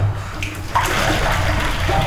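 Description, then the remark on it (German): The leftover hot water from making tea in a closed mug is poured away in a steady, splashing stream that starts abruptly and continues loudly and evenly for about a second and a half, with no one speaking. “Wir kippen natürlich den Rest von dem heißen Wasser weg”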